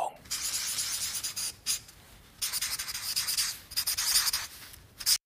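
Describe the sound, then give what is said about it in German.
A felt-tip marker squeaks and rubs across paper in several bursts of scratchy, high-pitched strokes with short pauses between, fairly loud, with no talking. “Tja, und das war das peinliche Geräusch, das äh, ein quietschender Filzstift genau, auf, auf Papier, Papier macht.”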